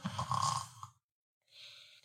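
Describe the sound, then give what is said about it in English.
A person mimics the snoring of a pet named Mochi: a rattling, guttural snort on the inhale, a brief pause, then a softer, breathy whistle on the exhale. “Because I can always hear Mochi snoring.”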